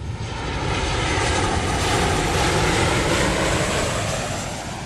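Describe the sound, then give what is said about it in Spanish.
A steady, loud airplane engine drone with a broad roaring hum that swells slightly in the middle, heard alone without any voices. “en avión.”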